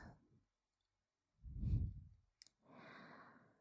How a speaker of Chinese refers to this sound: 姐姐像这样跨坐在你的腿上。和你面对面，是不是能感受到姐姐的呼吸声？